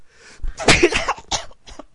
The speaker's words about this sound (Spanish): Joder, qué estornudo tú. Joder.